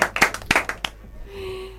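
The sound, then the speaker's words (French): A short burst of scattered clapping from a small audience, several sharp irregular claps lasting under a second, then fading out to a faint steady hum. “Plutôt pour qui ici ça a marché Applaudissons.”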